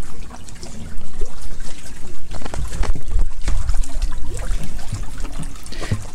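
A small boat moves through water, with continuous sloshing and trickling, broken by occasional splashes and knocks. Faint voices may be underneath.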